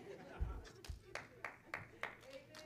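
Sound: audience clapping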